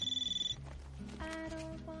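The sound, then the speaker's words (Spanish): A telephone bell trills rapidly and loudly for about half a second, then cuts off and gives way to steady, sustained tones like background music. “coge el teléfono.”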